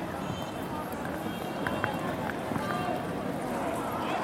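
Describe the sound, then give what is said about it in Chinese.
A busy street by Chengdu railway station in the morning, steady dense noise with many overlapping voices chattering indistinctly in Sichuan dialect, plus scattered footsteps and short bright clicks poking through the constant hubbub. “这一带无疑是非常喧闹的，我等一下会 走向城市相对安静的地方。”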